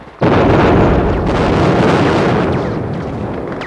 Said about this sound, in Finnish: Sitä pitkin ryömi kolmannen kolttajan haavoittuneita, joita vihollinen ampui kiivaasti. Silta räjähtää!